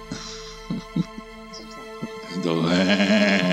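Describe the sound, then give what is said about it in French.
A person imitates a goat, letting out a loud, sustained, quavering bleat after a few soft thumps and brief faint sounds. “pourquoi tu fais une chèvre maintenant Parce qu'elle croit qu'elle c'est une voix chevrotante qui fait peur.”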